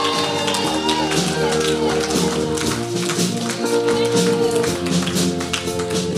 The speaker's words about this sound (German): Und das war schon mal so ein Applaus zum Warmwerden. Das könnt ihr schon merken und gleich geben wir nochmal einen richtigen Applaus.